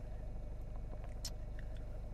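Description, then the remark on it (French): A car engine idles with a steady low rumble throughout in a parking lot, and a brief, sharp mechanical ratcheting click cuts in partway through as the handbrake is pulled up after parking. “Euh, puis on va se laisser là-dessus parce que ben, je, suis garé, je suis sur le parking, tu as dû remarquer au bruit du moteur, tu as dû entendre le frein à main.”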